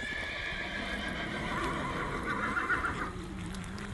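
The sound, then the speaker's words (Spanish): Horses whinny loudly over a steady rumble of galloping hooves, the neighs rising and wavering through the middle of the stretch as the hoofbeats pound on without pause. “Las trompetas sonarán en lo alto y entre las nubes los cuatro jinetes del apocalipsis bajarán en sus imponentes caballos.”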